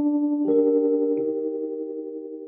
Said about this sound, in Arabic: الساعة سبعة الصبح يرن المنبه ويصحى عبد الله